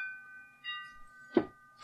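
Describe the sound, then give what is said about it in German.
A telephone rings with a steady, electronic-sounding tone, fairly quiet and sustained, interrupted near the end by a couple of short bursts of noise. “Warte, das Telefon.”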